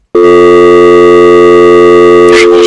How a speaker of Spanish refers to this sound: ese sonido del teléfono porque eso indica que no tiene coronavirus.